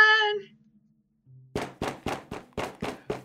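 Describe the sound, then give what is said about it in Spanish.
Seven loud, hollow knocks on a door come in a quick, fairly even series, preceded by a brief tonal sound and a moment of near silence. “¡Abre!”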